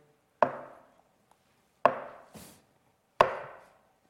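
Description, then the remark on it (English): Crutches tap on a wooden floor in three sharp, evenly spaced knocks, fairly loud, with a soft scuff between the second and third steps, as the biblical Mephibosheth comes to King David's table. No one speaks. “And he sets his crutches maybe against the wall and he takes his seat.”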